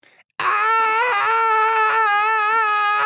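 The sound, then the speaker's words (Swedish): A voice imitates the Swedish air raid siren Hesa Fredrik with one long, loud, sustained wailing tone that holds a steady pitch and wavers slightly for about three seconds after a brief quiet start. “Vänta, jag ska, jag ska härma Hesa Fredrik här”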